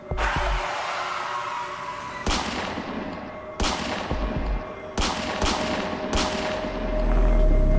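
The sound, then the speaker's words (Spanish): Five loud, sharp gunshots, fired by the Manson group through the window of a white Rambler car at Steven Parent, ring out at irregular intervals, the last few in quick succession, each with a brief echoing tail over a steady low rumble that swells near the end. “Le dieron cinco tiros a través de la ventana del coche.”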